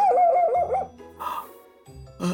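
A dog vocalizes, starting with a wavering, whine-like howl and then giving two short, sharp barks with a pause between them. No one speaks.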